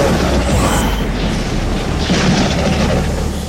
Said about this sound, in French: Le tonnerre gronde, le vent se lève, il fait courber les branches, il déracine les arbres, la pluie se met à tomber par gros paquets.